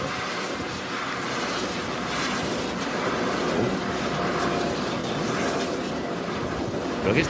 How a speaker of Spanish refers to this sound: de cuánto ruido emite un generador eólico de esos que veis por la carretera cuando mm. vamos de viaje, que son enormes.